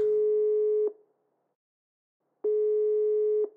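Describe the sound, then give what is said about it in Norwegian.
A steady electronic phone ringback tone sounds twice as the caller phones back, each pulse lasting about a second with a pause between, clear as if heard through the handset while the call connects. “Jeg ringer tilbake.”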